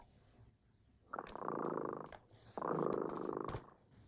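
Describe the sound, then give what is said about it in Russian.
A cat named Dremota purring softly, in two long rumbling swells, each lasting about a second, with a brief pause between them and no voices. “Слышите, кот дремота запел свою песенку.”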